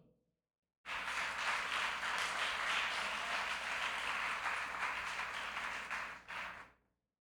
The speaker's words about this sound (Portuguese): Vale um aplauso para Jesus ou não?